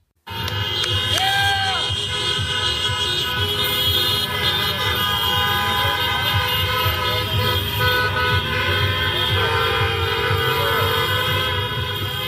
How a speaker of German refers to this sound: Und heute feiern aber die beiden Anhänger in Washington, in äh, Pennsylvania auf den Straßen. Und da haben wir auch noch einen Ton vorbereitet. Da hören wir mal kurz rein, wie das so klang,